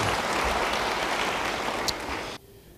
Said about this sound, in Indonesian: Yang percaya, beri tepuk tangan bagi dia.